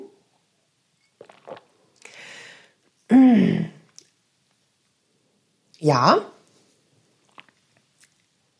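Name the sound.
sipping and swallowing water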